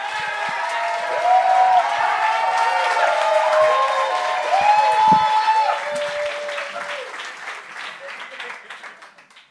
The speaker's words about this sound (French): On commence à applaudir pour le premier humoriste, Pat Savard. On accueille Pat Savard.